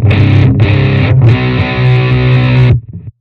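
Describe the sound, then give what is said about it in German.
A loud, heavily distorted electric guitar played through a distortion effects pedal plays three sustained chords, the first two brief with short gaps, the last held for over a second before cutting off abruptly, with no voices. “Die haben echt keine coolen Zerrer Was macht der Painkiller?”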